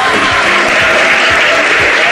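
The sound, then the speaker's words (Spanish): An applause sound effect played on request: dense, continuous crowd clapping that stays loud and steady throughout, with no voices standing out. “Que ponga aplausos.”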